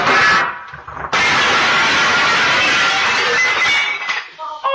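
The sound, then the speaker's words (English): A glass coffee table shatters with a loud crash after a little boy playing on it knocks down what he is playing with, followed by about three seconds of dense crackling and tinkling as shards scatter, then a few faint clinks as it settles. “and it's like a little boy playing on a table and then he knocks whatever he's playing with down and it shatters the table like a coffee table.”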